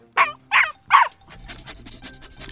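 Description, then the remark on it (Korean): A dog barks three times in quick succession, loud, each bark sharp and evenly spaced, followed by a lower, busier background noise and faint activity. “갑자기 저 어디서 개가 개가 짖네요.”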